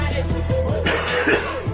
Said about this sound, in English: oh, that made me cough. Sorry about that. Had that Mutaba virus.